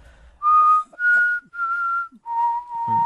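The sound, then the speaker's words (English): A person whistles a short tune of four or five sustained, clear notes stepping between pitches, fairly loud, with brief breaths between notes and no talking. “I was trying to do that on the train and I could not because I can't whistle.”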